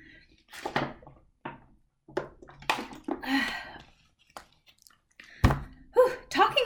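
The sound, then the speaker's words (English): Short wet gulps and swallowing noises of someone drinking water in an irregular series, with a sharp knock partway through, like a bottle being set down, and soft breaths between sips. “Okay, quick water break.”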